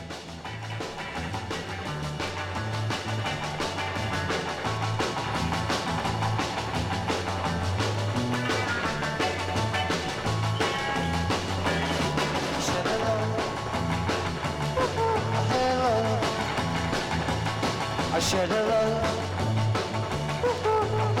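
A raw 1963 live beat rock recording from the Star-Club in Hamburg plays at steady full volume, with a dense, driving band sound of guitars, bass and drums filling the whole stretch without a break.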